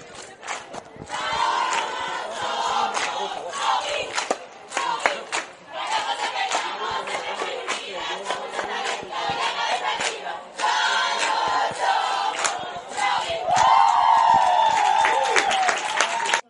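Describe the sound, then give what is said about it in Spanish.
A large crowd at the Orcasitas football stadium cheers and applauds continuously during performances by dance groups, with laughter and the crowd doing the wave; loud, dense clapping, whoops and rising shouts swell and surge throughout, with no clear speech. “Tras una hora en el estadio de fútbol de Orcasitas, con diferentes actuaciones de los tres grupos de baile, entre aplausos, risas y, como no, la ola del público”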